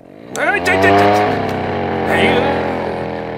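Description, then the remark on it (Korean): A motorcycle engine revs up loudly, its pitch climbing as it accelerates away, then holds a steady, droning roar for a few seconds, as a dog catcher abandons a cage and flees on the motorcycle. “할아버지가 소리를 지르자 개장수는 철창을 버리고 오토바이를 타고 도망을 쳤죠.”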